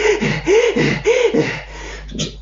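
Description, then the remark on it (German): A person imitates rapid, excessive panting, fast cyclic breathing through the mouth, about four quick, voiced breath cycles in a steady rhythm, fairly loud, trailing off into softer breaths at the end. “exzessiv einfach schnell zyklisch durch den Mund zu atmen, ist das mehr oder weniger nichts anderes als ein Paniksignal von unserem Nervensystem, hey, du bekommst gerade zu wenig Sauerstoff.”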